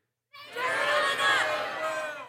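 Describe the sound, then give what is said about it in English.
A room full of people all shout their first and last names at once as loud as they can on a count of three, a loud, jumbled roar of overlapping calls that starts abruptly and holds steady for about two seconds, no single voice standing out. “All right, you trying really hard for everybody to hear your name.”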